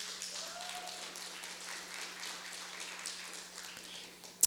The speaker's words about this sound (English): Before we start, I want to thank the guys in the back for your service and your work. Thank you. Amen. Can we give them a round of applause this morning?